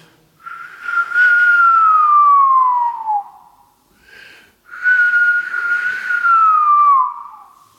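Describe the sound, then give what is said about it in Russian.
A person whistles an imitation of a golden oriole's song: two long, loud gliding phrases, each sliding smoothly downward in pitch, separated by a brief soft note. No talking. “Это оказалась иволга.”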